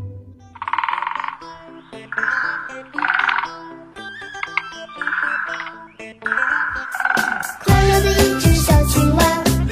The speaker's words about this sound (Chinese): 于是他张大了嘴巴，对着天空大喊了一声“呱”，再没有比这一声“呱”更纯正的青蛙叫了。